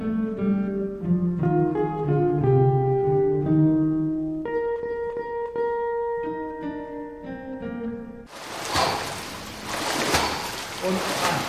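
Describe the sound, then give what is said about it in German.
Melodic music plays for several seconds, then gives way to loud, continuous splashing and churning water as soldiers paddle hard in a swimming pool at a private special clinic in Möhnesee, Sauerland, Germany, with breathy panting mixed in. “Die Soldaten paddeln und schnaufen. Noch eine halbe Stunde müssen sie hier im Schwimmbecken durchhalten.”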